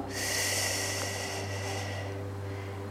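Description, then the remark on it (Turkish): One long, deep breath drawn in, a steady airy rush lasting about two seconds before fading, with a low constant hum beneath it and no talking; a big breath taken while sitting comfortably, before slowly closing the eyes. “Kocaman büyük bir nefes alıyoruz.”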